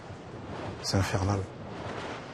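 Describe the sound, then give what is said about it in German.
A steady, broad whooshing of wind turbines about 540 meters from a house, heard at night, with a brief human vocal sound rising over it midway before the rushing drone continues alone. “Und trotzdem hören Sie nachts die Windräder?”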